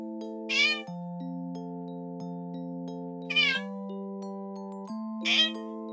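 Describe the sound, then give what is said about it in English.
Rocky, the family cat, meows three times, short clear mews spaced a couple of seconds apart, over a steady bed of sustained musical tones that shift chords quietly in the background. “Brown shut James's door and said to Rocky the family cat, Well, Rocco, it's just me and you for the rest of the night.”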